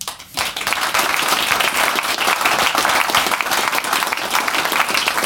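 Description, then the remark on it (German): An audience bursts into steady applause for the performers' manager, many hands clapping in a dense, continuous patter that stays loud for about five seconds after a brief quiet start. “Applaus,”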